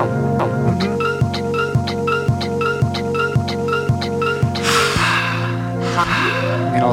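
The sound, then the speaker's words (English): Glitchy electronic pop music pulses in a steady, repeating pattern, with airy breath-like gasps and exhales surging up near the end. No one speaks over it. “It's like someone breathing it, on my it face. It really does.”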